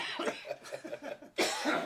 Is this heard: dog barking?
no